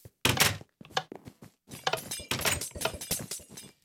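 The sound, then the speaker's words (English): Potion bottles being delivered in a video game break in a quick, irregular series of glassy crashes and clinks, several overlapping smashes with sharp bright edges and dull thuds, no voices present. “And here is potions being delivered.”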